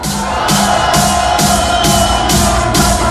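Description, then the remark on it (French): A loud crowd at the Excalibur nightclub in Crémonville cheers and shouts during a live Fun Radio Party Fun broadcast, a continuous roar, with a steady, rhythmic pulse of music thumping underneath about twice a second. “Est-ce que l'Excalibur peut faire plus de bruit que ça ce soir”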